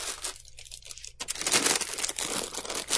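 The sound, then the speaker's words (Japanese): Crinkly plastic bag rustling, a steady crackling that swells louder after the first second and keeps going with irregular bursts, no voices. “ビニール袋の音、失礼しました。”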